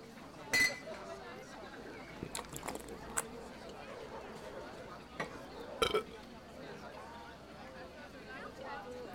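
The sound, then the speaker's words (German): Glasses clink together in a toast, a few sharp ringing chimes scattered over several seconds, with soft murmuring voices and background noise underneath. “Dann eben Prost darauf. Und auf die wiedergefundene Tochter.”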